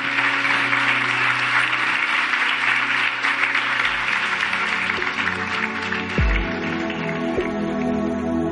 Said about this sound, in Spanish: ¿Por qué no le das un aplauso a Dios por el lugar donde tú estás?